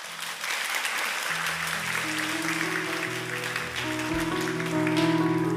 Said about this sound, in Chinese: 掌声要归给神。